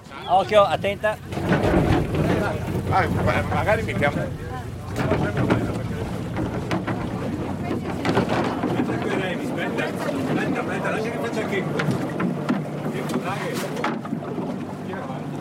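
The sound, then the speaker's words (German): A crane lifts a wooden boat with white-painted planks, a red keel and six people aboard, swings it aside and lowers it into the water with steady rumbling and clanking, plus wind buffeting the microphone and muffled voices in the background. “Der Kran hebt das Boot mitsamt uns allen in die Luft, schwingt es zur Seite und senkt es rumpelnd ins Wasser hinab.”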